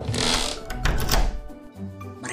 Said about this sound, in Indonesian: Dengan cepat, bayangan itu masuk dan menutup pintu rumah.